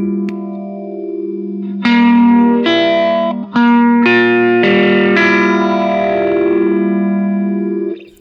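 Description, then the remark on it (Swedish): An overdriven electric guitar through a phaser pedal plays sustained, buzzing chords that shift every second or so, ringing out loudly on its own with no voices. “Jag drar på lite drive.”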